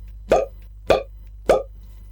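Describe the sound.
Three evenly spaced, punchy puffs of air blown in and out through a person's mouth as an attempted rap beat, like a simple beatbox pattern, each a short percussive pop with a breathy tail, clear over a low steady hum.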